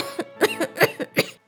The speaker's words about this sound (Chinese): 元宇刚说完，就再也忍不住遮住口，剧烈咳嗽了起来。